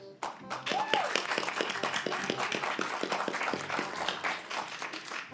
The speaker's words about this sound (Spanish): Damas y caballeros, recibamos con el aplauso que se merece